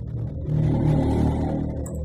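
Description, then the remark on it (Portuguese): An airplane passes overhead as a deep, steady rumbling roar that swells after the first half second and holds loud through the end, with no voices. “Nossa, passou um avião aí”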